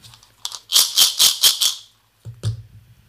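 A packet of Hitchies chewy candies being shaken, about six quick rhythmic rattling bursts, then a pause and a single softer rustle with a dull thump at the end.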